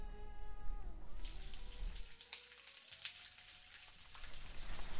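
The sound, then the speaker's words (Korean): Water from a shower runs steadily with a broad, hissing spray, splashing on a surface, as a man takes a long shower in a motel; a faint tonal hum fades early, and no one speaks. “어우, 남자들이 원래 샤워를 오래 하나?”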